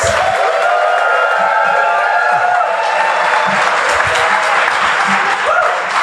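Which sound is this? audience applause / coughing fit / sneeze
audience applause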